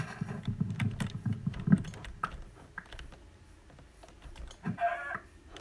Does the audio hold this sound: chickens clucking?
yes